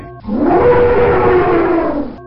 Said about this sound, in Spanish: El elefante.